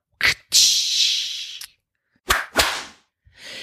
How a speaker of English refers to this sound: So in order to make that whip crack or, or get past that speed of sound, the tip of the whip must reach speeds in excess of 1400 feet per second or 750 to 800 miles per hour.